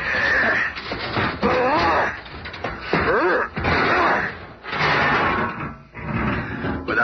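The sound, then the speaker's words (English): A door in the lobby of the Baxter building is being smashed in with a series of loud crashes and splintering thuds, some grunting vocal sounds mixed in between the blows. “Oh, well. We've been needing a new door anyway.”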